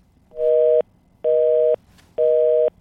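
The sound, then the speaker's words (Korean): Three evenly spaced electronic tones of a telephone busy signal, each lasting about half a second with short gaps between, loud and clear with no talking. “전화벨이 에, 통화 중 소리, 이 소리입니다.”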